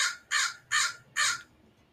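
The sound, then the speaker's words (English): A crow caws four times in quick, evenly spaced succession, each call harsh and raspy, with only a faint background hush between calls. “Crow medicine.”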